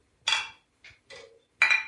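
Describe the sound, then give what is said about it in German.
Four bright clinks of glasses touching in a toast, the first and last louder with a short ringing tone, spaced unevenly over two seconds, with no talking. “Das wäre doch ein schöner Moment, jetzt hier mal anzustoßen.”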